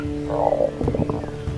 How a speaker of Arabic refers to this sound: أوه عفوا كان هذا صوت معدتي يبدو أنني جائع بل يبدو أنك تتضور من الجوع فصوت معدتك أعلى من صوت رعدي